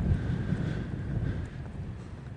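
Steady wind buffets the microphone outdoors under a cloudy sky, a dense low rumble with a faint hissing layer above and a thin whine, no voices present.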